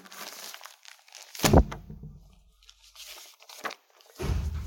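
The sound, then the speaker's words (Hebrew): Sheets of paper rustle and crinkle as they are handed out, one sheet to be shared by three people, in a few irregular bursts, one sharper crackle standing out, with brief quiet pauses between the handling sounds and no voices. “אין מספיק דפים. דף לשלושה.”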